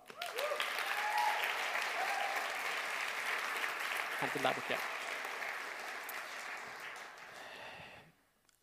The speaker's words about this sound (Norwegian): Kan ikke du eh, klappe han fram?